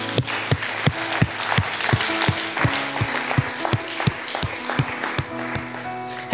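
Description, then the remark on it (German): A large crowd applauds steadily, a dense wash of clapping punctuated by regular, beat-like thumps with a faint tonal hum underneath, sustained at an even, fairly loud level throughout. “Hey, lass uns einen neuen fetten Applaus geben.”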